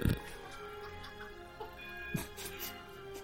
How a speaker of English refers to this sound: Uh, Do I hear a grandfather clock? yeah, why, why is there a grandfather clock going off in the background?